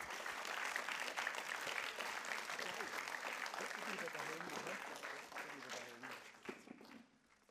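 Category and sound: crowd, audience clapping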